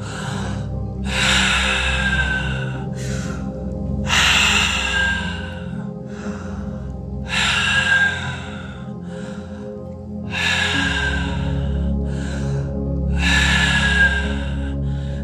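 Slow, deep breaths drawn in and let out during a guided relaxation breathing exercise, about five long airy cycles in a steady rhythm, clear, with a low hum running underneath and no talking.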